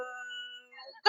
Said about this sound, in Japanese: あごめんね、犬がうるさいけど。